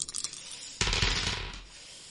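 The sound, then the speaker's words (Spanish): A few light clicks, then a dense clattering burst as six dice tumble and rattle across a hard surface, fading out after about a second. Fairly loud, with no voices. “Se escuchan los dados acá.”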